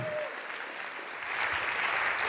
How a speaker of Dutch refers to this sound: Geef ook een applaus.